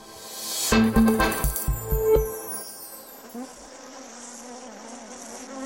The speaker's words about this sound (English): An element of Roland Garros that has been creating a bit of a buzz since 2015 is uh, the court's beehives. And there aren't just one, there's like some 20 situated around uh, Roland Garros.